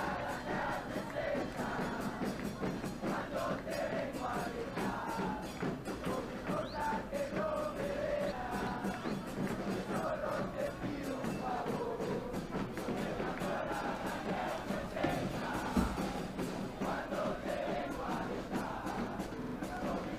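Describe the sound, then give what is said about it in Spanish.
A large football crowd at the Estadio de la Pedrera chants and shouts together in a dense, continuous roar, with rhythmic group singing rising and falling throughout, loud and sustained without a break. “Ya se escuchan las forras en el Estadio de la Pedrera.”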